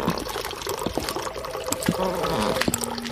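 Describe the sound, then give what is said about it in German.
A toilet flushes, a steady rush of water with trickling and a thin whining tone as the tank refills. “Da, das war die Toilette.”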